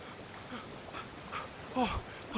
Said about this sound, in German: Plötzlich hört ihr von ferne eine Person zu euch Hechzen.